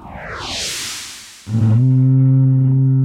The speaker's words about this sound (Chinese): 哦，这是我们第二次听到号角的声音。在古代，因为没有手机，在军队里，为了要让大家同时可以接收到指令，所以会用牛或者是羊头上的角做成这种乐器，好发出声音来指挥大家。